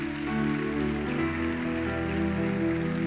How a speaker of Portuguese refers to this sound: Vamos aplaudir o Senhor por essa galera que veio aí, gente.